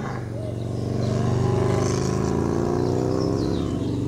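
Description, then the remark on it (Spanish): A motorcycle engine runs with a steady, droning hum, its pitch climbing gently as it drives away. The sound stays fairly loud throughout, with no voices. “La moto partió y Muto la siguió con la mirada, hasta que se diluyó en el paisaje quieto y vacío.”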